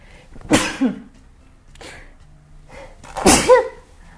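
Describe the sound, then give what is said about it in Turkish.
Two loud sneezes about three seconds apart, each a sharp breathy burst, with a few quiet breaths between them and no talking; the sneezer has morning allergies. “Çok özür dilerim. Sabah alerjileri başladı.”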